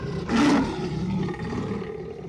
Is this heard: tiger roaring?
yes